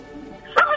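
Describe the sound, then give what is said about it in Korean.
A person briefly imitates a turkey startled by a field mouse, as a voice impression in a radio impression contest: one sharp, loud squawking burst near the end, after a quiet start. “들쥐를 보고 놀란 칠면조 소리.”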